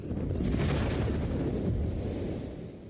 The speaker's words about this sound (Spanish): Si se produce la suficiente torsión, se cruzan las partes positivas y negativas de los círculos. Cuando lo hacen, provocan un cortocircuito con una tremenda explosión.